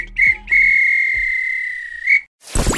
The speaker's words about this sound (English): This were a real bit of extra time. This is when the referee blow the whistle because it's finished.